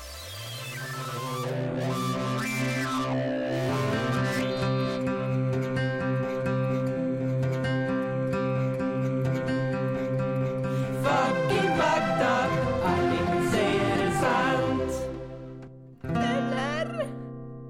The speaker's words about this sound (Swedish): vi hade något som hette Fucking Fakta förra gången och nu har vi en jingel. Och den låter så här.